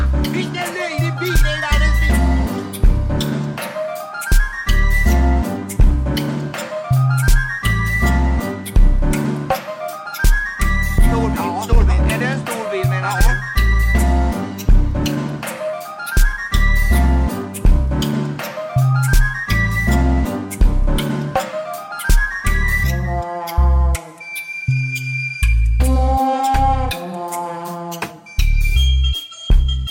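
A loud dubplate reggae track with a heavy, repeating bass rhythm and energetic toasting vocals riding on top, manic at the start, thinning out toward the end into sparser sustained tones.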